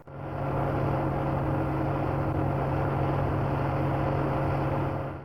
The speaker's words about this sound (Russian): Мы стоим в собственном гараже, где имеется все необходимое оборудование, а за окном уже тарахтит грузовик с виноградом.